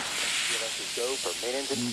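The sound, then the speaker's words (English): The launch pad sound suppression water system hissing at the launch of Space Shuttle Discovery, activated to protect Discovery and the pad from acoustical energy waves. It makes a steady, broad rush that holds for the whole two seconds, with a man's voice talking over it partway through. “The sound suppression water system has been activated, protecting Discovery and the launch pad from acoustical energy waves.”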